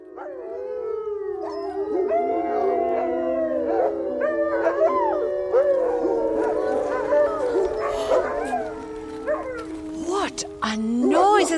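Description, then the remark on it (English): A pack of wolves howls together in a continuous chorus, long wavering tones rising and falling over one another, broken by sharp yips and whines, fairly loud throughout. “the howl of this, this of domesticated wild. wolf.”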